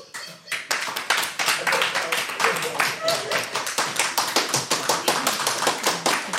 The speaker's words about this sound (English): Now, audience, it's up to you uh, to vote against pineapple on pizza. Um, so uh, if you so if you uh, if you believe that uh, pineapple on pizza is a colossal fucking outrage, uh, applaud now.